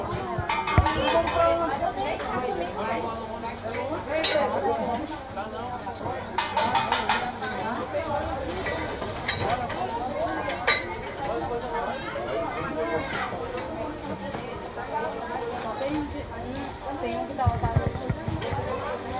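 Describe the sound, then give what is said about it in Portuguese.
A dense crowd murmurs continuously at a funeral procession as the hearse carrying the body leaves for the cemetery, many overlapping voices forming a steady babble, with occasional sharper bursts and some clattering hoof-like or mechanical knocks underneath. “Que tá uma multidão, né?”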